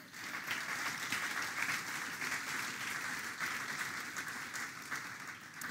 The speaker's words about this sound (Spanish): Si están entendiendo, denle un aplauso al Señor.